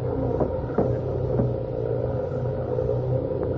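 A truck engine rumbles steadily in the desert, a deep continuous drone with a few faint knocks as it pulls away, with no voices.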